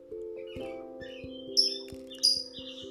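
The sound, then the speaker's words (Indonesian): Two short, bright bird chirps ring out over a steady low humming drone punctuated by soft, regular ticking. “Burung berkicau pip pip pi”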